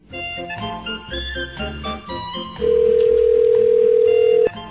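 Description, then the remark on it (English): A telephone call to a bakery rings out on the line: one long, steady electronic ring tone lasting about two seconds, loud, following a brief stretch of soft music-like sounds. “So eh, curiosity got the best of me, so I decided to make a phone call.”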